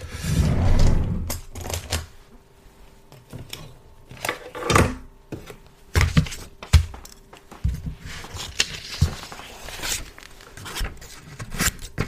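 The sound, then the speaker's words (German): Crisp snipping and rustling of paper being cut with scissors, a series of irregular sharp cuts and crinkles over about twelve seconds with no talking. “Ich cuttet gerade Papier mit einer Schere.”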